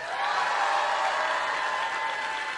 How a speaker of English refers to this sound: Applause line.